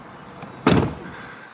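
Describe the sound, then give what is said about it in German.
A car door with its window lowered swings shut with a single solid thud, fairly loud, its low boom fading quickly without any rattle from the glass. “Ich mache mal die Tür zu, hört mal zu.”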